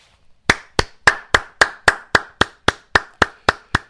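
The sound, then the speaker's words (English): One person claps about a dozen times in a steady, fairly quick rhythm. Each clap is sharp and crisp, with no talking around it. “It's very rare that I applaud something I read to you, but this leftist is as honest as the day is long.”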